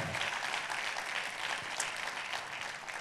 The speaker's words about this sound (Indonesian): berapa banyak dari saudara yang tahu saudara di tempat ini oh tepuk tangannya lebih dahsyat buat Yesus Tuhan kita